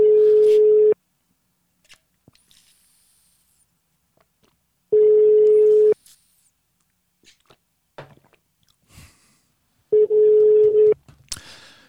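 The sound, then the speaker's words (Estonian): A phone ringback tone repeats three times, each steady one-second beep followed by several seconds of quiet, while someone mutters softly in the gaps as the call goes unanswered. “Please näe, et ma helistan.”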